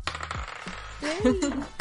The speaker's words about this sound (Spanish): A ver. Por cierto, tengo dados. Escuchad.